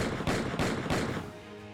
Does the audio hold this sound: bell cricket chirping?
no